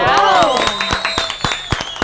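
An audience applauds with brisk, uneven clapping. Bright sustained tones run through it, and the sound stays loud for about two seconds.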